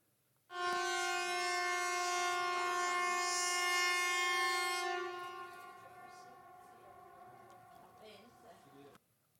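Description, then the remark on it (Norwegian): A loud air raid siren blares with a steady, harmonic-rich tone for several seconds while people walk past outside, then fades somewhat and continues more softly until it cuts off abruptly. “Midt i, på ruten klarte å fange eh, når flyalarmen gikk.”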